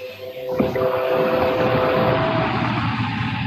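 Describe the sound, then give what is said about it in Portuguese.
A train rumbles past close by, a loud, steady roar of low engine and wheel noise with a faint tonal whine above it. It holds strong throughout, with no voices. “Como é que foi o trem passando aqui perto?”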